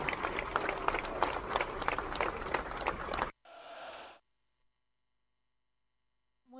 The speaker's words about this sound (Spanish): Fuerte, grande, vamos. Y el aplauso para Angelito La Luna.